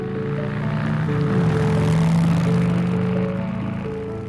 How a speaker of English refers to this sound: A motorcycle ride in the country, a chance to get away from it all.